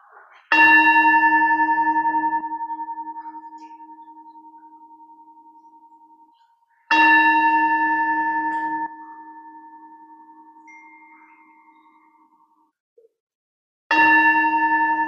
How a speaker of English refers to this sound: Take a nice deep breath as we hear the ringing of the bell calling us into worship.